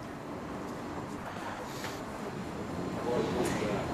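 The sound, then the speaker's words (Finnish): Steady, dense rumble of Kontula metro station with faint indistinct voices, growing a little louder toward the end as a train's whooshing roar rises. “Olla yhdessä sellaisissa nytkin täällä Kontulan metroasemalla.”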